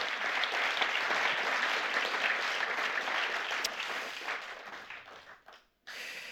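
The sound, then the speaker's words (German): An audience applauds steadily, a dense wash of many hands clapping that holds for several seconds, then thins out and briefly stops before a last burst of clapping. “Gebt ihr einen warmen Applaus.”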